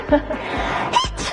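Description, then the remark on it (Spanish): A few quick, high-pitched sneezes in close succession during a live broadcast, short sharp bursts that sound fairly loud, with a breathy hiss between them. “Salud.”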